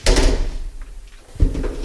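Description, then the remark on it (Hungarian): The door into a library's book storage room swings open with a heavy, low rumble, then after a brief lull a second dull thud follows as it settles or bumps shut. “ez ott nem a raktár, itt van a könyvraktár, egy ajtón keresztül lehet oda jutni.”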